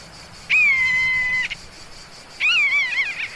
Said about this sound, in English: There's a raptor up there. He has sighted prey. I look up too and see the slow whirling of a large dark bird above us. It's a buzzard.